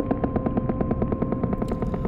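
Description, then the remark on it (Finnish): A rapid, steady train of echolocation clicks, about nine per second, each sharp pulse trailed by a faint echo, over a constant low hum with no voices. “Ne lähettävät äänen, vastaanottavat kaiun ja tulkitsevat heijastumasta hyvin tarkkaa tietoa ympäristöstään, kuten vaikka saaliista. Se on kaikuluotausta.”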